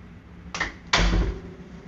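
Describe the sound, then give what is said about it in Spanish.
A door that had come open swings shut with a brief scrape, then lands in a loud thud that rattles for a moment against a steady background hiss. No one speaks. “Ando caminando aquí y voy a cerrar una puerta que se abrió.”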